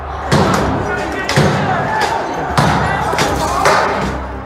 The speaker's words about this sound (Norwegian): Og vi ser hvordan opprørerne knuser dører og vinduer. Og noen klarer å klatre inn, mens eh, mange bare løper eller stormer inn dørene.